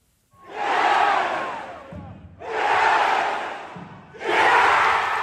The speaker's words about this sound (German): So etwa tönt es im Alley Pally zu London, wenn die besten Dartspieler der Welt sich messen.